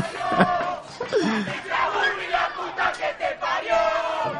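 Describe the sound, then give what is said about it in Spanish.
A large crowd chants together in loud, overlapping voices, the sustained shouted phrases rising and falling in a steady rhythm throughout. “Es casi como presidente eso, porque ese es el canto del presidente.”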